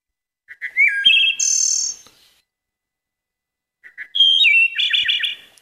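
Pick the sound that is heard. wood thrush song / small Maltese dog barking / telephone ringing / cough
wood thrush song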